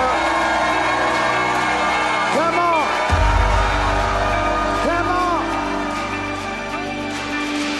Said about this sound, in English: Now go ahead and let the world hear the greatest shouts that have ever ascended out of planet